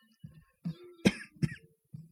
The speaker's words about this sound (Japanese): なんか咳がなんか出てますけども、大丈夫なんじゃないかなと思います。多分ね。エアコンの乾燥のせいだと思います。